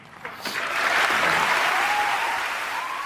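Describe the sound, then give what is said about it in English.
Audience applause swells quickly into a steady, dense patter of many hands clapping, holding loud and even for a few seconds with no voices standing out. “Now, when I hear that applause, I hear two things happening.”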